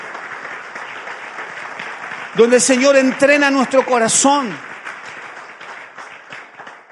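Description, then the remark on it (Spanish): An audience applauds "the one who lives" during a sermon, in a steady, dense wash of clapping that runs the whole length, while a voice speaks over it for a couple of seconds in the middle. “¿Cuánto damos un aplauso al que vive?”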